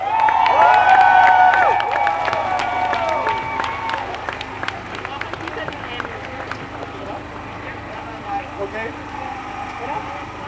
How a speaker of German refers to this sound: Also bitte einen Applaus, Leute, let's go!